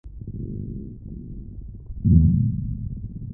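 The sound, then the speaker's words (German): A low, gurgling stomach growl rumbles continuously for a few seconds, swelling louder and bubblier partway through before settling back, with no voices. “Besonders in der letzten Stunde vor der großen Pause grummelt und knurrt es überall im Klassenzimmer.”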